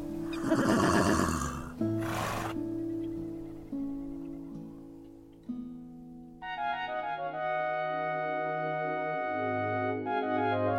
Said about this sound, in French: quand vous vous promènerez dans la campagne et que vous verrez des chevaux galoper dans de vastes prairies, pensez à regarder en l'air.